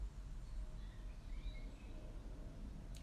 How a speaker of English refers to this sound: at this very moment where I'm just sitting here looking at the beautiful flowers inside my garden mm and listening to the birds singing, then that's absolutely fine.